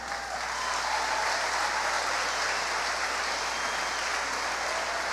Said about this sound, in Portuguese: Eu vou pedir à banda para subir. Um aplauso aqui para esta banda fantástica.